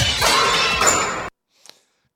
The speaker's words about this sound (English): Uh, swoosh.